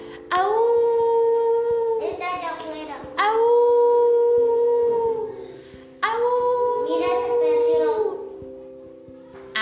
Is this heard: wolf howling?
yes